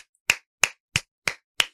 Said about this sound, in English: Round of applause.